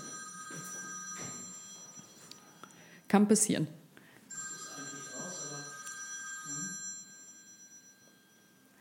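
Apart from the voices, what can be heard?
mobile phone ringing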